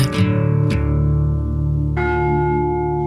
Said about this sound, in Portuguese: Eu ia dar os parabéns pela redução do volume do gongo, que já foi muito mais alto, que fazia lembrar o carrilhão de Mafra. E hoje foi muito contido